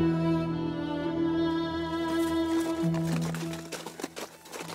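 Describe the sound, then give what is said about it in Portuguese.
Horse hooves clip-clop in a steady rhythm on a hard road, coming in partway through over a sustained, droning musical tone with no voices. “Vocês pegam a estrada segue o máximo que o cavalo aguenta até parar para descansar”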